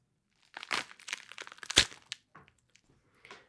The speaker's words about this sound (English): You're essentially going to try to split the pomegranate apart. So you just hold it in your hands, you put your thumbs in the middle where you cut off the top part. And here we go. Look, it's making a great sound.